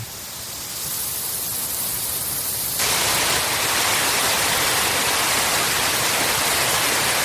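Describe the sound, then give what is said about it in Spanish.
A steady, full roar of the Tajo river rushing at the Embocador reservoir in Aranjuez fills the scene with no voices, growing brighter and louder a few seconds in as more spray and hiss join the constant flow. “Es el sonido del río eh, Tajo.”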